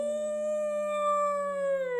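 A single long, wolf-like howl holds one steady, tonal pitch for about two seconds, then sags slightly at the end. It is fairly loud, with no talking.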